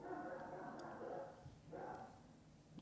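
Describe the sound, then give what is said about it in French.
A dog barks, faint and muffled, in two short bursts separated by a brief pause, with no one talking over it. “Il y a un chien qui aboie.”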